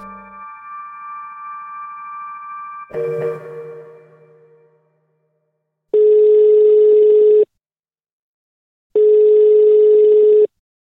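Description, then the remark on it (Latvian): A steady electronic tone and a brief click are followed by two evenly spaced, loud telephone ringback tones, each about a second and a half long, separated by silence, as a call to an immunologist rings out after working hours. “Imunologu sazvanu vakarā pēc darba laika beigām.”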